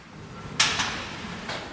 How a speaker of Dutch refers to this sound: Even kijken, deur gaat open. Goed.